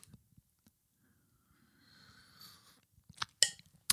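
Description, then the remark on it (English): A drawn-out slurping sip of coffee from a mug, with an airy whistling edge, followed by a few sharp clicks and knocks like the mug being set down. No one speaks. “to take a sip of coffee out of my butthole Biden mug”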